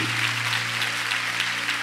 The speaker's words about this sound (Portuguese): Uma salva de palmas meus voluntários.